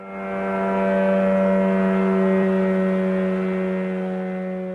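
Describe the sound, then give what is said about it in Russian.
A kamikaze drone with a wingspan of about 2 metres, powered by a Chinese two-stroke internal combustion engine, buzzes steadily, a loud, droning, moped-like whine that swells slightly mid-pass and holds for several seconds with no voices. “Для его передвижения используется китайский двухтактный двигатель внутреннего сгорания, довольно шумный, отчего эти дроны получили название летающих мопедов.”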